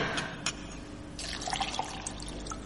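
Pure spring water splashes and trickles into a glass, a short pour with bright bubbling and a few drips, fairly quiet against a low steady background hum.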